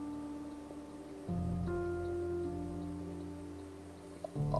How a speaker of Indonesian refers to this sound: eh, suara kipas ada sama tadi ada suara orang lewat si motor